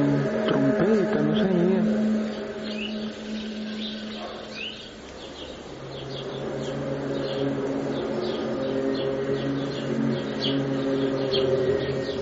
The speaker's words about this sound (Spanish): Creo que nuestros amigos oyentes de inmediato habrán identificado el famoso eco, el sonido de la trompeta, decían trompetas del apocalipsis, ¿no?